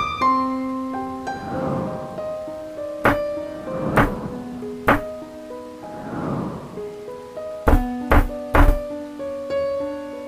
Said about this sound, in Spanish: Algo estaba tocando la puerta. Primero se escucharon muy levemente, por lo que pensé que había, habría podido haber sido el viento. Sin embargo, el sonido se repitió, pero esta vez con mayor fuerza sobre la madera de la puerta que yacía cerrada